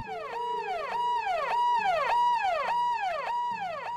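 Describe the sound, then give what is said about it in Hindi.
A police siren from a police jeep pulling up in front of a station wails in quick, repeating sweeps, each rise and fall lasting about half a second. It sounds loud, with no voices over it. “वो दोनों कांस्टेबल हैरान हुए कि इतनी देर में पुलिस के सायरन की आवाज आई”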